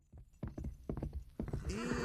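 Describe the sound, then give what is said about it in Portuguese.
A horse's hooves clip-clop in a steady rhythm, followed by a high, wavering neigh near the end. No one speaks. “olha lá, o Matuto trocou o jegue por um cavalo. Nossa, é cavalo.”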